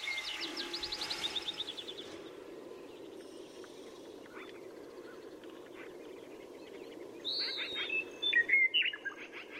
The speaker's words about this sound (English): And right now, we're sharing the songs of birds recorded in quiet places in Boulder County.